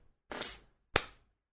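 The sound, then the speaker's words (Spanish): Three coins being tossed for heads or tails: two sharp metallic clinks about half a second apart, the first with a brief bright ring and a short rattling tail, the second a crisp snap fading quickly, with no voices. “Vamos a hacer una cosa, vamos a tirar una moneda. A ver. Mm, tres monedas.”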